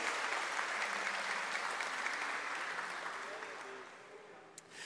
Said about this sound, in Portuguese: Quem recebe esta palavra, aplauda o nome do Senhor Jesus.